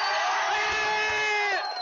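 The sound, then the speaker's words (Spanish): A crowd cheers and applauds loudly and steadily for a couple in love, a dense wash of voices and clapping with a few high shouts rising above it, easing off slightly at the very end. “Un aplauso para esta pareja que está enamorada.”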